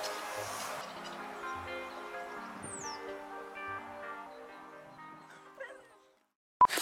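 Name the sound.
dog barking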